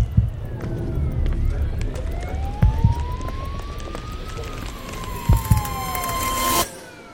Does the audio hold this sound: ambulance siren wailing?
yes